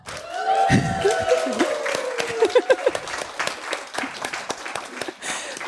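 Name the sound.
audience cheering and applause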